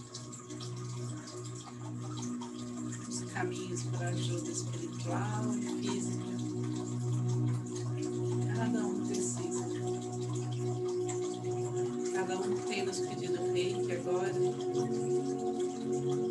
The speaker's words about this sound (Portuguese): Água.